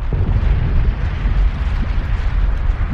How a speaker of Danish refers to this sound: Det er et vulkanudbrud, hvor det vælter ud med lava.